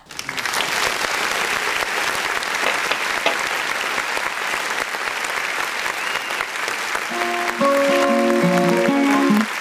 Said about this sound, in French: On peut d'ailleurs euh, l'applaudir, ce garçon. Oui, ah, ça, mérite des applaudissements.